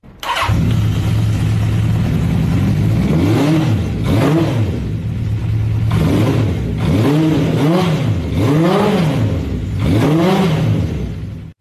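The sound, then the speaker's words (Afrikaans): A Honda CB650 motorcycle engine idles loudly, then gets revved in a series of about six sharp throttle blips, each rising and falling back toward idle, with no talking. “Ja, en ons kan sommer nou luister na hoe klink hierdie CB650.”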